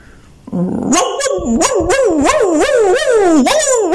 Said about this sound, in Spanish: Un perro corría hacia nosotros ladrando desaforado.